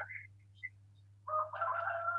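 A rooster crows in the morning, a loud, drawn-out harmonic call that swells in the second half, preceded by a few short chirpy notes, over a steady low electrical hum.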